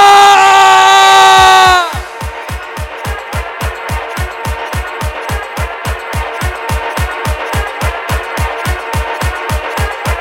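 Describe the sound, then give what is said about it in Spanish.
A crowd of wedding guests lets out a loud, sustained shout in unison on a count of three for about two seconds, then it cuts off and a steady, thumping dance beat takes over. “Vale, si os lo habéis pasado bien, a la de tres gritamos a saco, ¿vale?”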